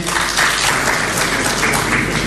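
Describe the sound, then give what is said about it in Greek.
Steady applause from an audience after a speech, coming late because of the delay in translating the speech; a dense, even patter of many hands clapping that holds at a fairly loud level throughout without pause or voices. “το καθυστερημένο χειροκρότημα οφείλεται στην καθυστέρηση της μετάφρασης.”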